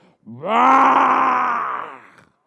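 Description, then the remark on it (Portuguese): A person voices a single drawn-out, growling roar imitating a lion going out to hunt. It rises at the start, holds loud and steady for about a second and a half, then fades out. “Aí quando o leão sai para caçar, que ele dá aquela rugida.”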